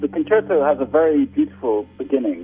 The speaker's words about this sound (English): And apologies for the bad phone connection here.